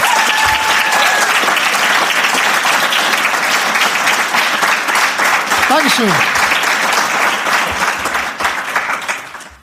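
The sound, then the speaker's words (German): Sustained applause from a real live audience fills the whole stretch, a dense crackle of many hands clapping that fades slightly at the end, with a brief spoken thank-you over it. “Ja, also tatsächlich mit echtem Publikum.”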